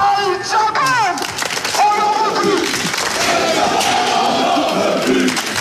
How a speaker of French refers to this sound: C'en est trop pour les supporters du Cop Angevin qui allument une dizaine de fumigènes, des feux d'artifice et les lancent en direction du terrain